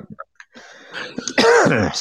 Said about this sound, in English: God, I hate that cough. I have allergies have been acting up so bad lately. Uh, it's all the weather, isn't it?